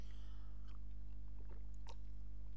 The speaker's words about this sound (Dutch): Dan moet ik even een slokje water nemen.